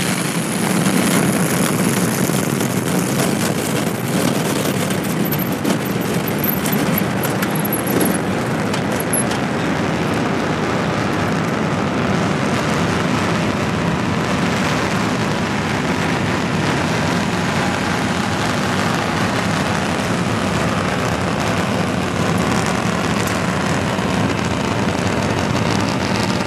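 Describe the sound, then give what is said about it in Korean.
The Nuri rocket's engines roar at launch, two engines igniting and the other two 0.2 seconds later: a loud, dense, steady rumble with a hissing crackle that holds unbroken for the whole stretch, with no voices over it. “10, 9, 8, 7, 6, 5, 4, 3, 2, 엔진 점화, 26, 누리호가 발사되었습니다.”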